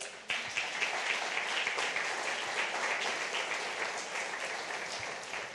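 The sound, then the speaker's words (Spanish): A crowd applauds the Lord steadily, a dense wash of many hands clapping at once that starts abruptly and holds fairly even throughout, tapering slightly toward the end. “Dele un aplauso, Señor.”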